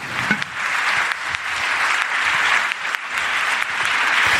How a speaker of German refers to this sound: Und du wirst natürlich, wenn du hier hochkommst, auch einen wunderbaren Applaus bekommen für unseren Gewinner.